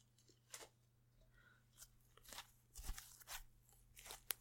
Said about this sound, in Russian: Поэтому отставлю бокал, Открою слайм.